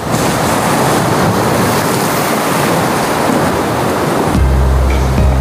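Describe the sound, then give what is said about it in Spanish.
Steady, loud sea surf rushes and washes continuously, with no voices. Near the end a low droning hum, like a boat engine, rises beneath the waves. “Como es buena idea irse ahora hasta el mar, o mejor dicho, a través del mar hasta las islas.”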